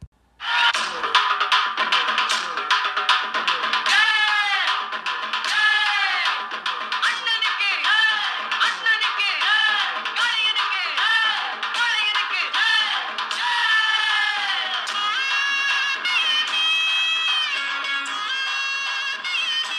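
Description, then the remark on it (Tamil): A song's opening: a loud, raw, unmixed folk kuthu tune with a wailing, bending reed-like melody over a heavy, steady, driving percussion beat, playing continuously with no talking. “அவ்வளோ சூப்பராக இருக்கும் அந்த ஓப்பனிங்கு ஹெவியாக இறக்கியிருப்பார் பீட்டுனா அதுதான் அப்படி ராவாக இருக்கும் வேறு அதில் கலப்படமே இல்லாத ஒரு அடி குத்தாடி அடித்து முடிச்சிருப்பாரு அந்த ஓப்பனிங் இப்போ கேளுங்க”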